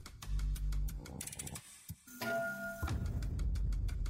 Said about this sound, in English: couldn't help but notice the ticking of the clock was every half second instead of every second like it should.